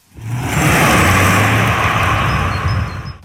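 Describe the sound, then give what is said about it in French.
A Citroën GT electric car drives along a road with a steady, loud rush of tyre and wind noise and a low hum that holds for the whole few seconds. No one speaks. “D'ailleurs, on va voir tout de suite sur la route ce que donne cette Citroën GT.”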